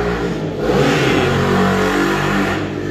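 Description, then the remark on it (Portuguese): A motorcycle ridden by a young man passes by outside, its engine revving loudly and steadily for a few seconds with a broad, rumbling roar that swells slightly in the middle before easing off. “Ó, o moço passou de moto, né?”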